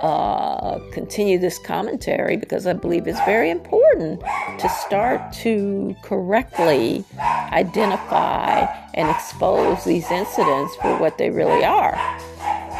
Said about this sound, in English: Excuse my dog's barking, please. I'm going to pause for one moment.